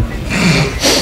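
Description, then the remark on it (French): A short, low, buzzing fart lasts about a second, its rasp fairly steady before it trails off into a brief airy hiss. No one speaks over it. “euh, toi, t'as pété non mais va t'asseoir d'autre espèce de porc.”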